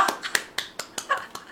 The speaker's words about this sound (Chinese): 此处有掌声。